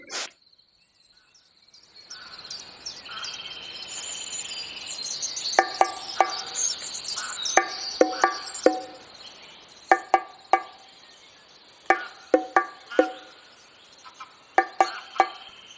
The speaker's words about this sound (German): Es ist ganz schön kühl hier im Wald trete aus dem Sonnenschein zwischen die Bäume und fange direkt an zu frösteln.